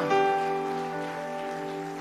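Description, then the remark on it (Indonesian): A crowd claps in a steady, dense patter that blends into a wash of noise, underneath a sustained keyboard chord that rings throughout at an even level. “Come on, berikan tepuk tangan.”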